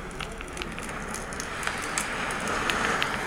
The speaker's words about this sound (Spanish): Me gusta que empiece con este sonido de fogata y mar, así nos teletransportamos un poco.